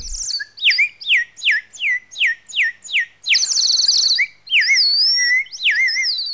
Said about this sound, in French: Agnès Arbaud, en quoi le chant du rossignol est-il plus humain que les autres